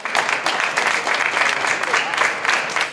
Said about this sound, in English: Thank you for being here with us today. Let's give our whole group a round of applause. Wasn't that great?